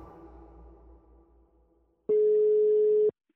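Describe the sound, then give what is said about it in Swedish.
A single loud, steady phone ringing tone sounds for about a second as a call is placed to a woman, following a soft, fading musical hum, with no one talking. “Så att, eh, jag tycker vi ringer upp henne så får vi höra hennes berättelse.”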